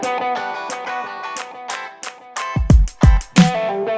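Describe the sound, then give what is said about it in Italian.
A song begins playing in the background of a news segment presented by university students in Trento, with a bright, distorted instrumental melody in steady repeated notes, then heavy bass drum hits kick in partway through. Loud, with no voices. “ma sento già arrivare la prossima canzone in sottofondo, ascoltiamo.”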